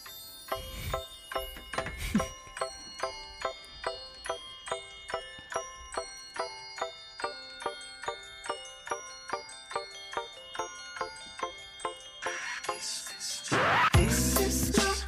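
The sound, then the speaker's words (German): Bells chime steadily in a song, struck in an even rhythm of about two or three per second with bright ringing overtones, before a louder, shimmering wash closes the passage. No one speaks. “Oh, da haben wir schon die, ähm, die Glocken ne? im Hintergrund.”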